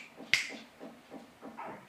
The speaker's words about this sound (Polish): Przepraszam, że pstrykam,